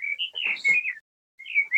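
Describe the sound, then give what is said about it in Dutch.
Small birds chirp outdoors in quick, high twittering bursts, a busy run of calls, a brief pause, then more chirping, one bird sitting on a roof. There is no talking. “Dat is ook vogeltjes.”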